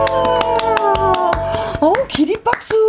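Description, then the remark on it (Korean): Sharp, steady hand claps ring out while a voice holds long sung notes, the clapping continuing briskly underneath and around the singing; a standing ovation given by host Kim Hye-young on the radio show 'Kim Hye-young and Together'. “하면서 김혜영 씨가 기립박수를 기립박수, 보내준 건 예.”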